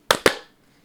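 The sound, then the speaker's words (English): Two sharp hand claps in quick succession, made to sync a recording after a three-two-one count, loud and crisp, each with a short ringing tail that fades out, then silence. No voices are heard. “All right. Clap sync. Three, two, one.”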